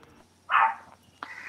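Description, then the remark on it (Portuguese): A dog barks once, a short, sharp bark from somewhere off in the background, followed moments later by a quieter, briefer yelp; no one is talking. “cachorro está latindo no fundo aqui, vocês estão ouvindo”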